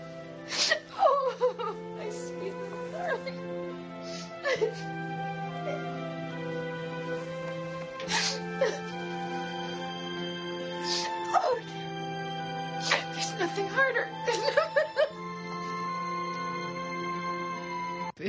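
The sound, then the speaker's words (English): A person cries, with shaky, wavering sobs broken up by sharp sniffles every few seconds, over a faint steady hum and no talking. “it wasn't enough, I'm sitting here crying.”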